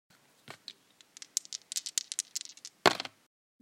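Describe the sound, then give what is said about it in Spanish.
Dice rattle and clatter across a surface in a quick burst of sharp clicks and taps, ending with one louder knock before silence. No one speaks. “Vamos a lanzar los dados y cayeron en”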